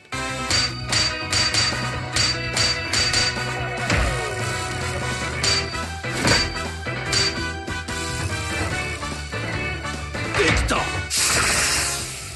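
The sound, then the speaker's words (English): Rhythmic hammer strikes ringing on red-hot metal in a touch-screen rhythm minigame of forging a weapon, a blacksmith's clang repeating over an upbeat game music track, loud, with a hissing burst near the end. “So you get you get a hunk of uh, very like red hot metal, and as it slowly cools, you you have to bang on it to the rhythm uh, with the touch screen, and you will and you can turn it over, and you will eventually shape it into whatever weapon it is”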